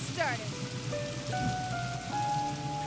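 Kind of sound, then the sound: nature, heavy storm rain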